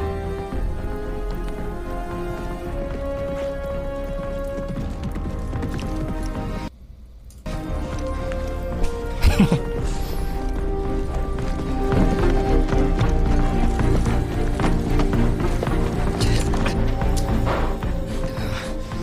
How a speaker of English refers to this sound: And we have the very first shot of Prince Charming gallantly galloping